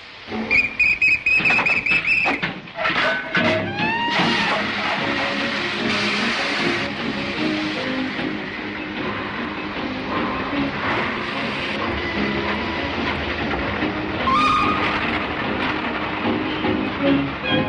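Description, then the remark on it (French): A steam locomotive's whistle shrills near the start, followed by the steady rumble and rhythmic clatter of a train running along the track, loud and continuous throughout. “Mais je pense que rien ne vaut la machine à vapeur.”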